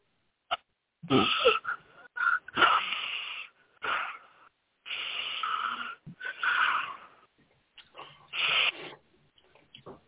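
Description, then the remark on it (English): Heavy, raspy breathing, a series of wheezy inhales and exhales in uneven bursts separated by short pauses, with no talking. “Getting some heavy breathing”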